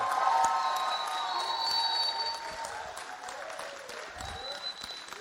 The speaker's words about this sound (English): He is your shepherd. Come up here, brother. Both of you come up here. Ladies and gentlemen, can we please get a nice round of applause for your shepherds here?